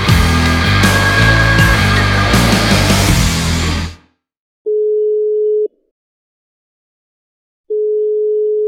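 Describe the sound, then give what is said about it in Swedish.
Loud music cuts off abruptly, followed by an outgoing-call ringback tone: two steady, one-second tones separated by a couple of seconds of silence, as a call is placed to someone at Södertörn's fire protection association (Södertörns brandförsvarsförbund). “Mycket bra förslag. Vi ringer direkt.”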